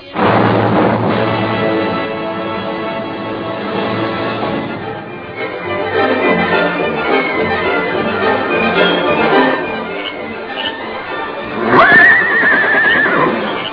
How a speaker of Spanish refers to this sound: Oh, oh, mi alazán. Quieto, caballo.